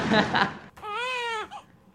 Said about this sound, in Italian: Ho fatto piangere un bambino. No, questa battuta hai fatto piangere un bambino.